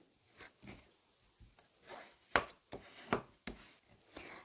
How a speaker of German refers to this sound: Diese falze ich dann jeweils in der Mitte, so dass ich zwei A6-Karten bekomme. Als nächstes falze ich das jetzt einmal nach und so erhalte ich dann zwei A6-Karten.